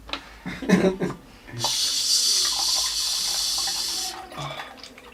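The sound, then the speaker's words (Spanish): A steady stream of generic water pours into liquid for about two and a half seconds, a hissing trickle made as a sound effect imitating someone urinating, to test a new microphone, with brief talking and handling noises before and after. “Vamos a hacer efecto a ver si, si, lo capta el nuevo micrófono, como de que si estuviera orinando.”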